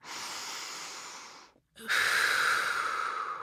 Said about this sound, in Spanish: Sigue respirando. Inhalo. Exhalo.